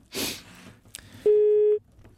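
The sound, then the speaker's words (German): A loud, steady telephone busy-signal tone sounds once for about half a second as a phone is being switched off, preceded by a brief rustling burst and a sharp click, with no talking. “mal unsere Mikros auch ausgemacht, anstatt ich wollte das Telefon ausmachen.”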